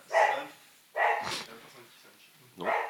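A dog barks three times, loud sharp barks spaced about a second apart, with a longer pause before the last one.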